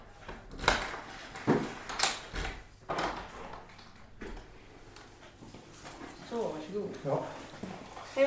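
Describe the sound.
A few sharp knocks on a door ring out, followed by the clatter and creak of the door being opened, with faint voices and movement afterward.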